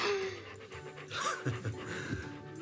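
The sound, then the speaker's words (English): A dog named Duke pants steadily, quick rhythmic breaths filling the short moment, with faint background noise and no talking. “Apparently, Duke is confused as to who is a dog and who is a human.”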